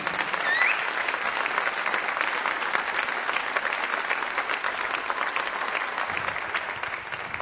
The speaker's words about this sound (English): Uh, what I'd like to do is introduce a friend, um, and as I do that, would you please give a round of applause for our friend